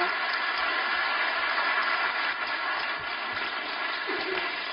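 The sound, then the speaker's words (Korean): An audience applauds together, a dense, steady wash of many hands clapping that holds the same loudness throughout, with no voices over it, welcoming the pastor as he comes up to preach at a church special dawn prayer service. “우리 목사님 예, 올라오셨는데 우리 사랑의 박수로 한번 목사님 모시도록 하겠습니다.”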